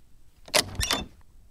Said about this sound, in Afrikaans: Sy gaan staan voor die deur en sy klop. Die deur gaan oop.